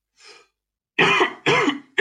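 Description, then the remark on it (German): A faint breathy throat-clearing sound, then a series of loud, harsh coughs in quick succession with short pauses between them; no talking. “Jetzt habe ich einen Huster wieder.”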